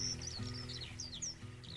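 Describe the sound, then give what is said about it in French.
Birds chirp and tweet in quick, repeated bursts in the background, layered over a steady low humming drone of bumblebees that continues throughout. “On entend les bourdons et les gazouillements au fond.”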